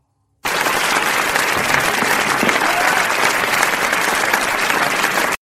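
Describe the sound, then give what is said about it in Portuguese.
Sustained audience applause, dense and steady, starting abruptly and holding at a strong, even level for about five seconds before cutting off, with no voices standing out. “Vamos, espero que ainda não estejam cansados de aplaudir.”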